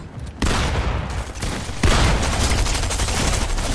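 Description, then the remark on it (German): Continuous automatic gunfire from a video game, a dense rapid spray of shots with sharp loud onsets near the start and again partway through, filling the whole clip with no talking. “Bro, wie er durchsprayt!”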